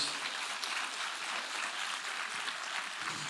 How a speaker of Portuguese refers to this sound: Quem pode dar glória a Deus? Quem pode dar um grande aplauso ao Senhor Jesus nessa noite?